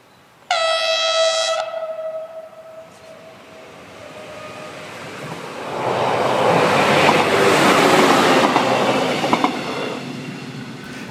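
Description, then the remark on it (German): A VT 628 diesel railcar pulls out of Friedensdorf (Lahn) station, the crossing station on the upper Lahn valley railway. It opens with a loud harmonic horn blast for about a second, then its engine roar and rolling wheels build up and swell as it passes by. “Hören wir nun einen VT 628 bei der Ausfahrt in Friedensdorf.”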